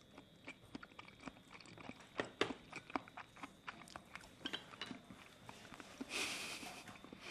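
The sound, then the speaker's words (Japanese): Wet, soft chewing of a large raw scallop dipped in soy sauce, a steady run of small clicky mouth sounds and squelches at an irregular rhythm, moderately quiet with no talking. “ホタテいただきますけど身がこれものすごく大きいんですよこの貝柱すごいブリブリだもんね醤油にチョンしていただきます”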